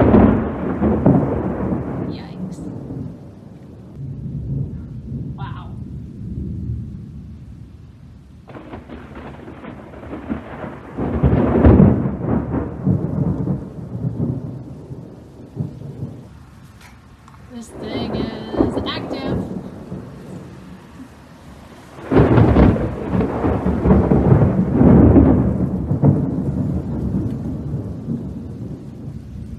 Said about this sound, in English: Okay, here's the storm. Hey, how about that lightning strike?